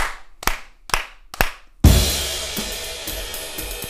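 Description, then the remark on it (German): Four sharp hand claps in a steady count of one, two, three and four, clear, setting off the intro, followed immediately by a loud burst of full-band intro music that continues to the end. “Klatschst du bitte?”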